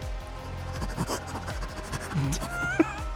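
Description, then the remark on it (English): A person mimics a dog snuffling and panting along tracks, a run of quick, breathy sniffs and huffs, with a few short voiced grunts mixed in. “They're just sort of like snuffling along the tracks.”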